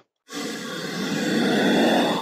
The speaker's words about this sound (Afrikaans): Hierdie blaasgeluide kan varieer van 'n vanaf 'n diep gromgeluid by die koningskobra. Uh dit klink omtrent so.